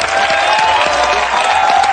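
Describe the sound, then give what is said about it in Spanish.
An audience applauds the program's participants and a judge with a dense, continuous patter of many hands. The clapping stays at an even loudness, with no voices rising above it. “Aplaudan también a nuestra querida jueza.”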